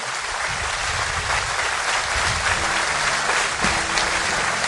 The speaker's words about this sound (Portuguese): Vamos aplaudir a Ele, vamos celebrar nossa comunhão.